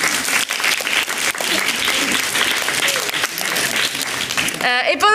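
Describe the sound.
An audience in the hall applauds steadily and loudly for about five seconds, a dense wash of many hands clapping, before a voice breaks in at the very end.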